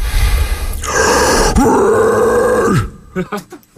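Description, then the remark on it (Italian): A harsh, raspy false-chord growl demonstrated in an extreme singing lesson, produced using the diaphragm, sustained for about two seconds, gritty and distorted with a slight pitch slide, followed by a few short breathy sounds. “Eh, allora, l'altra volta abbiamo parlato di false chord, di false eh. corde, ed è mm. tecnica che uso maggiormente per cantare.”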